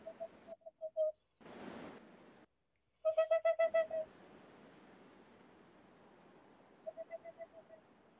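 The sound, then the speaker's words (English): A seven-inch owl's call played from a recording in an enormous desert in high winds: quick runs of high, clipped yelping notes repeated three times, the middle run loudest and the last faint, over a steady windy hiss with a short rushing burst. “It's something you're not supposed to do very often, but when you've flown across country and paid a guide to find you one seven inch owl somewhere in an enormous desert and high winds”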